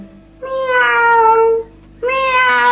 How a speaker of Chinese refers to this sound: 喵喵 喵喵的叫， 叫得我开心， 叫得我更开心， 好开心。